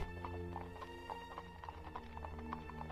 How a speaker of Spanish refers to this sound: Madre, ¿oyes el galope del caballo del patrón?